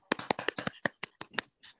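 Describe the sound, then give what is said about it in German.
A brief, small round of applause: about ten sharp hand claps in a quick, slightly uneven patter, fading after a second and a half. No one speaks. “Das ist auch der beste Durchschnitt, also kleiner Applaus.”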